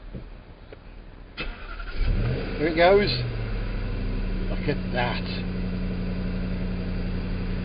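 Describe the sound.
A Jaguar XFR car engine cranks and fires up with a brief rev after its start button is pressed with the key simply resting in place, then settles into a steady, low idle that continues to the end. A man speaks briefly over it.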